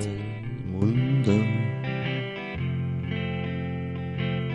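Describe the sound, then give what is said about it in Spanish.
A song's instrumental opening plays steadily and fairly loud, with rich sustained tones, a couple of sliding notes near the start and a slightly distorted, effected sound, no voices. “Es una canción que me gusta mucho y espero que te guste”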